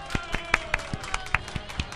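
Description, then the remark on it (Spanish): Steady, rhythmic clapping from an audience applauding a child, about ten sharp claps over two seconds at an even pace, with a faint murmur of voices and a sustained tone underneath. “Un aplauso, por favor, sí, el aplauso para...”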